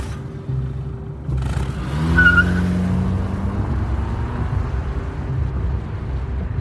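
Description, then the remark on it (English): A car drives steadily along a road, its low engine rumble continuous, with a brief rise in pitch and loudness around two seconds as it accelerates, then settling back to an even drone. “Um, should we turn on the sirens and book it just in case it's an emergency?”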